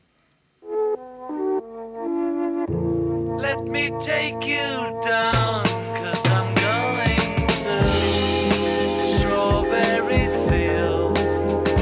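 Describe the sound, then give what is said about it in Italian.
After a brief keyboard-like intro, a male voice sings a slow melody whose pitch was artificially lowered by changing the tape speed, sounding slightly warbly, set against a full, loud band arrangement with guitars and sustained tones. “questa melodia cantata suona così”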